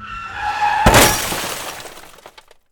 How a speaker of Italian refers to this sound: La sua Aston Martin si sarebbe scontrata con un camion